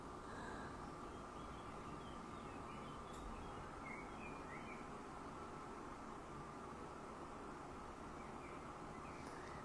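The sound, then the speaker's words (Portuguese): Faint, scattered bird chirps sit over a steady, dense background hiss, a nature ambience track played as a background sound, continuous for the whole stretch with no voices. “Alguém está perguntando os passarinhos?”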